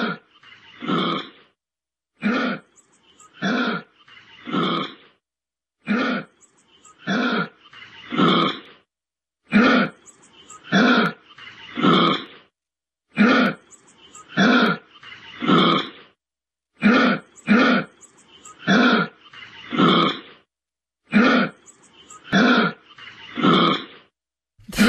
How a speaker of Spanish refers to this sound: Bueno, ahí les va nuestra historia sonora de hoy. Esto que estamos escuchando no se oye rarísimo, pero es un canguro.